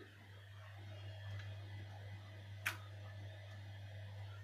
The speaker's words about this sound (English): And this is the sound of the heating.